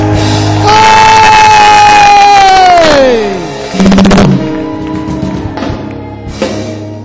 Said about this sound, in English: look at what the Lord has done somebody give the Lord a shout of praise